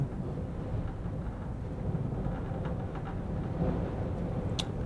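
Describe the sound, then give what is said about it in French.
Strong wind in a snowstorm at Igloolik, Nunavut, in the Canadian far north, roars steadily through the whole stretch, a dense low rumbling rush with gusty swells and buffeting, and a brief sharp tick near the end. “Du vent, de la neige.”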